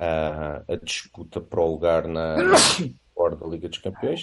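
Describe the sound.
A man talking is cut off midway by one sudden, loud sneeze, a sharp explosive burst, after which he briefly pauses and then carries on speaking.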